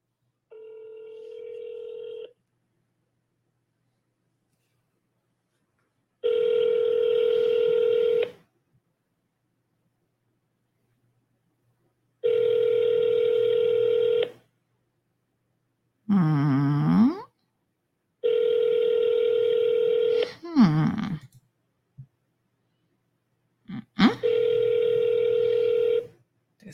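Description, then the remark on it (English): A telephone ringback tone, during a call to a Jamaican number, repeats in steady bursts of about two seconds with pauses between, broken up by a couple of warbling electronic chirps, with no one speaking. “phone not even ringing anymore?”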